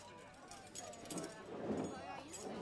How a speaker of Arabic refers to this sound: حكيت لكم عن أصوات الناس الغير مفهومة خلونا نتخيل إنهم قاعدين بمطعم كيف بتسمعوا أصواتهم؟